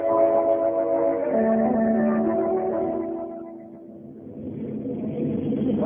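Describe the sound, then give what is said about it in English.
A motorcycle with a sidecar rumbles steadily, its engine note droning with a brief easing off near the end before it swells back up. “riding around with you in the bathtub of a motorcycle.”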